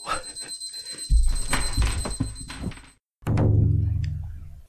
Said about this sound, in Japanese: すぐ脇で勉強している子供が、タイマーを、勉強のタイマーを切り忘れて あの、リビングに戻ったということですね。はい、皆さんびっくりしてしまいましたね。失礼しました。